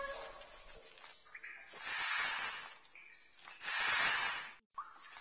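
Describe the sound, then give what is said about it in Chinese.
A snake hisses twice, each a loud, breathy burst lasting about a second, separated by a short pause. Faint background tones sit underneath. “是蛇，我们必须走这条路。”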